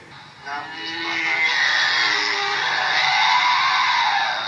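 A woman screams loudly and continuously, a harsh, strained, high-pitched cry that rises after a brief start and holds for several seconds without a break.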